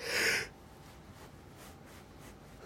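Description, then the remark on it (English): A yawn ends in a loud, breathy rush of air lasting about half a second, followed by near silence with only faint background hiss. No one speaks. “Uh, sorry for yawning.”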